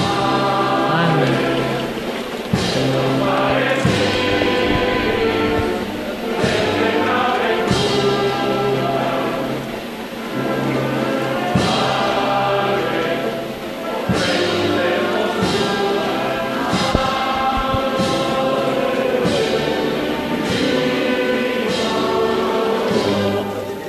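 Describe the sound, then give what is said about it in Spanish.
The band of Nuestra Señora de la Soledad de Cantillana plays a slow, stately processional march during a religious procession, steady and loud, with regular bass drum beats, while the crowd sings the Salve Marinera throughout. “Pues bueno, escuchamos la, la música que es magnífica. Nuestra Señora de la Soledad de Cantillana. Sí, esa es la banda.”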